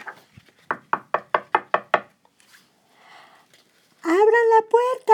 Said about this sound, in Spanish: Volvió a la casa, llamó a la puerta y dijo,